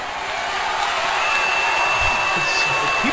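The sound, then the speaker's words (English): A large wrestling crowd boos in a steady, dense roar that fills the whole moment, loud and unbroken, with no individual voices standing out. “so people are booing, are booing.”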